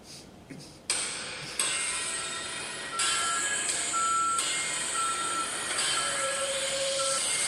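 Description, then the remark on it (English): Heavy machinery rumbles and grinds loudly and continuously, with high-pitched reversing beeps sounding at intervals over the mechanical noise. Nobody speaks. “sounded like what should have been the theme song when the dump truck came out to claim Eric Bischoff.”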